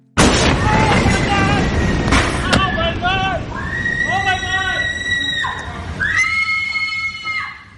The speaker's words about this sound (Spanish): Se trata de la explosión que ha destruido buena parte de Beirut y ha dejado 180 muertos, más de 6.000 heridos y 30 personas desaparecidas.